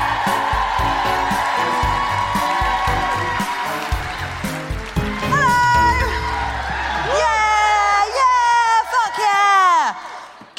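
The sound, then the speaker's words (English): A loud comedy show audience claps and cheers over a thumping beat as comedian Suzie Ruffell is welcomed on, with high, sliding whoops and shouts rising toward the end as the noise swells. “Please start the clapping and the cheering.”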